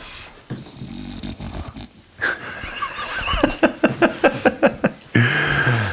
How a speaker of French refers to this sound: Bah, le chien est toujours là, hein, je, confirme.